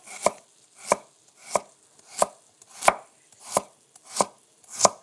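A kitchen knife chops steadily on a thick wooden cutting board, eight crisp, evenly spaced strikes with a soft woody thud, no voices present.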